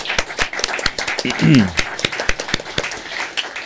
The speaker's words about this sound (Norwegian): Hun må få en applaus.